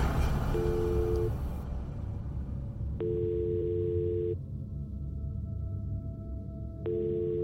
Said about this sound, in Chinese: 竟然没有人接听，电话响的太久，就自动中断了。